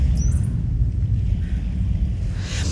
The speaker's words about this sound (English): oh now there's a huge military jet flying going to fly over can you hear that rumble?